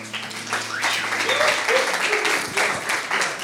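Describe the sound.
A crowd applauds steadily for a few seconds, a dense wash of clapping hands at close range, with faint voices and a low hum mixed underneath.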